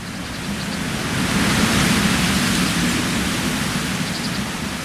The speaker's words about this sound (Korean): 어휴, 바람이 세지는데요? 응? 저 소리 말이요. 네? 무슨 소리야 저 갈대밭이 부는 바람 소리 잘 들어봐.